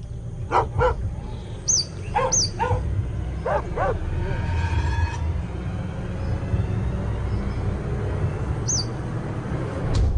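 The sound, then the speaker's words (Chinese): Wild dogs in northern Singapore let out a handful of sharp barks and yips in quick clusters during the first few seconds, over a steady low rumble, with a few high bird chirps scattered throughout. “新加坡北部的野狗野性十足，它们凶悍又聪明，是求生专家。”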